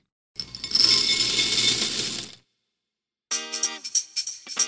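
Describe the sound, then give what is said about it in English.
Cereal pours into a bowl for breakfast in a dense, rattling rush lasting about two seconds, then after a pause comes a short burst of bright, ringing clinks. No one speaks. “If you or your grown up is ever too tired in the morning to cook up a big breakfast, you can just pour some cereal.”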